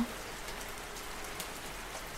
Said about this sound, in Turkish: Ve şimdi usulca yağan yağmurda uyku pozisyonuna geçmeni istiyorum.